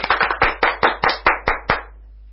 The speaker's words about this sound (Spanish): Operador, por favor, aplauso. No tenemos efectos de sonido. bueno, em, los invitados nos ayudarán a esto. Por favor, un aplauso.